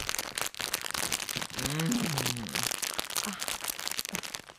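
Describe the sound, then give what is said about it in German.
Wrapping paper on a Christmas and birthday present crinkles and rips as it is torn open, in a steady run of crackly rustles, with a brief voice sounding faintly partway through. “Ja doch, das kann man aufreißen.”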